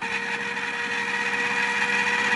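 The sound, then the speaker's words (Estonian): A steady mechanical whir of an ice cream machine churning an unflavoured yogurt mixture, with a constant motor hum and high whining tones that stay even throughout, with no voices. “aga ma panen siis äh, jäätisemasina seina.”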